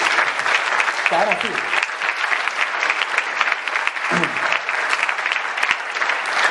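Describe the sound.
An audience breaks into sustained applause, a dense, steady clatter of many hands clapping throughout, with a few brief voices calling out beneath it.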